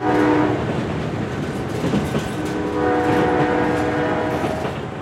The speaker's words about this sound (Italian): Un treno, come quello che ha portato via il fratello e l'amato nipote Viene dalla Spezia ed è diretto a Venezia.